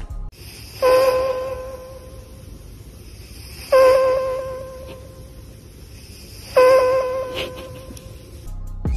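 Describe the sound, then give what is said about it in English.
A cat snores close to the microphone, with three slow, evenly spaced breaths about three seconds apart, each carrying a thin, whistling squeak over a soft, steady hiss. “And now, here's the sound of a cat snoring into a microphone.”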